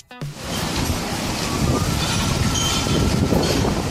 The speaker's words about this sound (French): Bon ben voilà, il pleut. Hein. Là, ça flotte bien comme il faut, tranquillement quoi. Ouais, ouais, Ça pleut, ça pleut. Flotte, ça flotte.